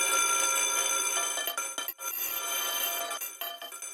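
A loud electric school bell rings continuously for several seconds, a bright metallic clangor with a brief break partway through, then resumes until the end. No voices are heard.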